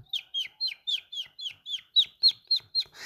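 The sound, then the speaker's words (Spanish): A voice imitates a little bird with a quick, steady run of about a dozen high, bright chirps, clear with no talking, ending in a short breathy rush. “Por ejemplo, si tú piensas en un pajarito, entonces hagamos como un pajarito.”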